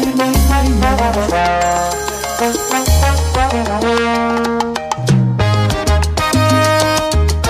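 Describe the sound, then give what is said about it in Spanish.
A phone rings with an incoming call, a loud, melodic ringtone playing for several seconds, a bright synthesized tune over a steady bass line with rhythmic note changes, heard clearly with no one talking over it. “No hay nada que no puedas oír, me está hablando mi ex.”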